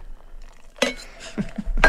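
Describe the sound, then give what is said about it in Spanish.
A cocktail shaker being handled and shaken, giving a few loud, bright metallic clinks and ice rattles in uneven bursts, with no talking. “Entonces esta es la parte donde todos pedimos aplausos porque vamos a agitar.”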